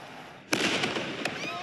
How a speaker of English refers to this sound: There's still a large police presence surrounding this area, as well as many community members who are out and about who tell us they felt the concussion from that blast from inside their homes all throughout this neighborhood.